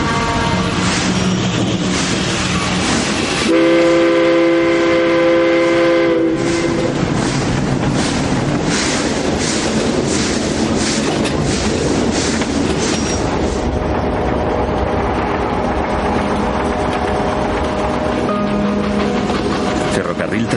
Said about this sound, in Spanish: El ferrocarril emprende su marcha.